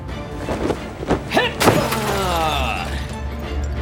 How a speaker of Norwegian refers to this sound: Men knuste du vinduet?